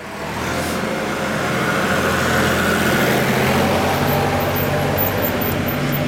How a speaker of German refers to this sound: Oh, kommt gerade ein Traktor. Traktor.